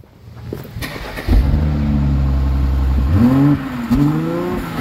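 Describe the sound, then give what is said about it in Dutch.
A black 3-litre six-cylinder petrol car engine, an old-fashioned car for sale at a shop, cranks briefly, catches with a loud steady rumble, then revs twice, the pitch climbing and dropping back between blips. No one speaks. “Ja, weer een ouderwetse zescilinder in de winkel.”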